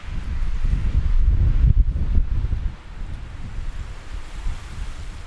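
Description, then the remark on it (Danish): Strong, blustery wind from a storm in Denmark roars and buffets the microphone with deep low rumbling gusts, loudest in the first half before easing slightly, with no voices present. “Det stormer nemlig i store dele af Danmark denne dag.”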